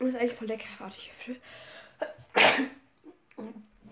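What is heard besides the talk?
sneeze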